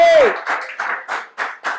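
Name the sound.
audience applause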